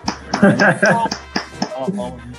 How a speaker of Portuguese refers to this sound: Muito obrigado, meninos, pelas palmas.